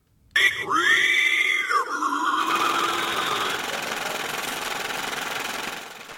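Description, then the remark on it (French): An invented mashup of a horse and a panda, with dollars raining and trees falling: shrill, wavering squeals like a horse whinnying and an animal crying rise over a loud, harsh crashing roar that persists steadily and fades at the end. “c'est le son d'un cheval et d'un panda qui s'enculent pendant que des dollars pleuvent et que des arbres tombent”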